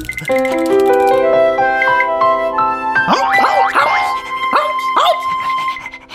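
After a few seconds of rising, chiming musical tones, a dog barks several times in quick, uneven, loud bursts, with the tones still ringing underneath.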